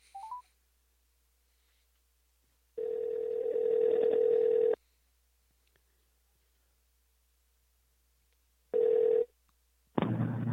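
A phone call to a dad ringing out over the line: one long, steady electronic ring tone, a quiet pause, then a second ring cut short as the call connects with a burst of noise.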